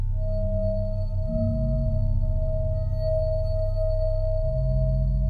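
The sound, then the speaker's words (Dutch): A telephone rings in a house at night with a steady, unbroken electronic tone that holds for several seconds over a low, rumbling background hum. No one speaks. “En de telefoon gaat.”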